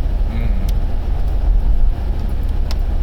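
Steady low rumble of a car in motion heard from inside the cabin, continuous road and engine noise with faint higher clicks now and then, no one speaking.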